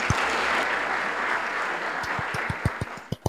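Dense applause from a crowd fills the first two seconds, then thins out into a handful of separate, sharp claps toward the end. No talking is heard.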